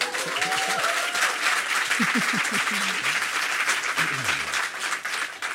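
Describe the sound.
An audience applauds steadily for several seconds, a dense, even wash of clapping, with some voices calling out and murmuring underneath.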